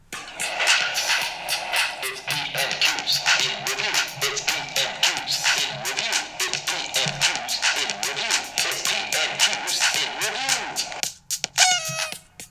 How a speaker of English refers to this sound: And if we're going to review Prime Minister's questions. We need a jingle. Then, yes, we do, he says, stalling for time, finding the jingle that he'd forgotten about, but which sounds like this.